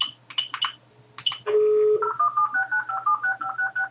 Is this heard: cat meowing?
no